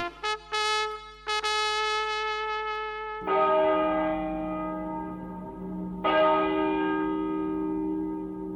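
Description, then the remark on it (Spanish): Church bells ring out loudly, a few quick early strikes followed by two heavier peals whose rich tones hang and overlap in a long, resonant decay. No voices. “Vamos, nos están llamando. Las campanas dicen, dan.”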